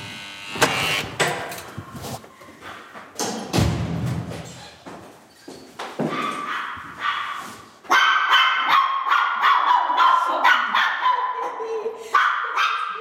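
A small Chihuahua named Dobby, in Oberfranken, yaps in quick, high-pitched bursts, loud, with barely a pause between barks; the frantic barking keeps going and grows more insistent toward the end.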